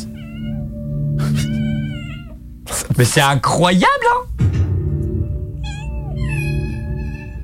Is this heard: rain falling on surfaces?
no